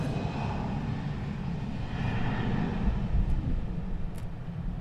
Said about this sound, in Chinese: 又有一台飞机，长荣，长荣，